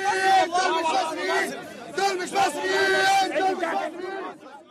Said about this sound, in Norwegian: Til slutt kommer en guttegjeng, pumpet opp på adrenalin, begynner de å skrike.